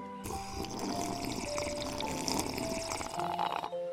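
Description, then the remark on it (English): A long, steady sip of McCafe iced coffee from McDonald's: a bubbly, gurgling draw of liquid lasting several seconds at an even loudness, with no voices. “So pick up your McCafe iced coffees, close your eyes, and deep sip in.”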